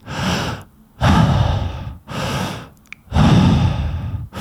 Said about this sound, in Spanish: Pero la respiración de la que estamos hablando es una respiración consciente, continua, que para que tengas una idea se hace con la boca abierta, inhalando y exhalando por la boca de manera continua. Una cosa así.